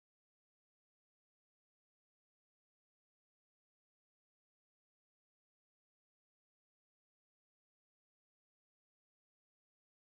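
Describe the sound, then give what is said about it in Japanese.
A stream drop-out leaves complete digital silence for about ten seconds, with no voices, hiss or background noise of any kind, just a dead, empty feed. “配信トラブルだまあいいやこのまま続けちゃおう”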